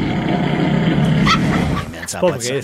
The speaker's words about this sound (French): On écoute les pires ronfleurs de l'histoire. On a trouvé des perles sur euh, YouTube, évidemment. Alors, écoutez bien, cet homme qui sonne comme un arbre centenaire qui se fait déraciner